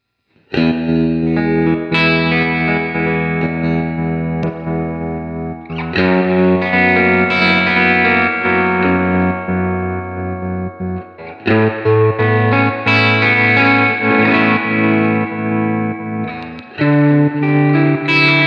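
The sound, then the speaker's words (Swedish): Electric guitar drenched in big, washy reverb, with distorted, shimmering chords sustaining into one another and changing every few seconds. Loud and continuous, with no voices. “Eh, jag vet inte, man kan dra upp reverbet på Dreamerna lite grann.”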